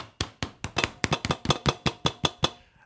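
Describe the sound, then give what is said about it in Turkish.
Rapid, loud knocking on desks by several people as a salute to an honoured guest, a quick uneven flurry of about a dozen sharp wooden raps, some overlapping, fading at the end. No one speaks. “Ee, kendisini sıralara vurarak selamlamamız.”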